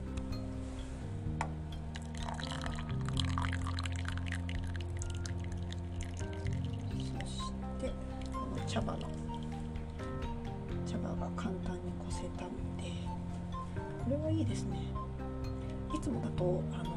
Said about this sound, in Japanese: やっとね5分経ちましたので、えー、蓋を開けましてぴゃぴゃぴゃと蓋の水気を払ってで茶こしをねプラプラプラとさせて茶こしからお茶を落としています